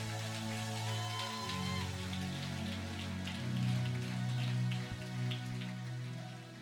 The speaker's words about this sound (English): Give the Lord a big round of applause in the house.